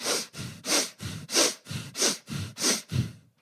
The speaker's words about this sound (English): I finish with 50 deep, rapid hyperoxygenation breaths, which basically sound like this.